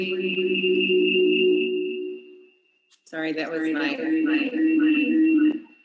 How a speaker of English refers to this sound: You have an echo on your thing.